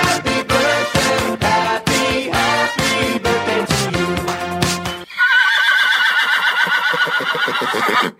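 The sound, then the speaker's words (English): A short burst of upbeat music with punchy drums gives way to a loud baby horse whinny, a long shrill neigh that quavers and trails off over about three seconds, introducing the Daily Whinny segment on Horse Radio Network. “All right, Daily Whinny time.”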